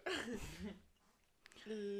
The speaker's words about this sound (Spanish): Esa tos, ¿eh?